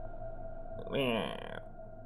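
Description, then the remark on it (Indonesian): A single drawn-out creak of a room door, groaning and wavering in pitch for under a second, rising above a steady low background hum, with quiet before and after. “Tiba-tiba saja Terdengar suara pintu seperti dimainkan berkali-kali.”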